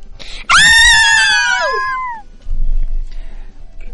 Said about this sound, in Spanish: Cuando de repente se escuchó un grito muy fuerte.